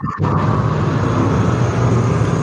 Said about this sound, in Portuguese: Caralho, um avião, velho.